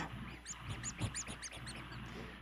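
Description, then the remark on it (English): A squeaky rubber toy with a pirate hat and a sword in its wing is squeezed over and over, giving a quick run of high, chirpy squeaks in an uneven rhythm, fairly soft, with no talking. “okay, I guess it makes noise too.”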